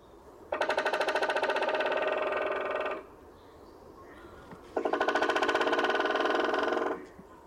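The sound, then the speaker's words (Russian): A white-backed woodpecker drums in two long, rapid rolls, each lasting a couple of seconds and separated by a short pause. The rolls sound loud and clear, with no talking. “А вот, например, как звучит дробь белоспинного дятла.”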